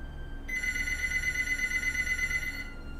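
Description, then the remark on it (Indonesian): A telephone rings for an incoming call, a steady bright electronic trill with a high harmonic buzz, sounding for about two seconds over a low background hum with no talking. “Budi nelpon.”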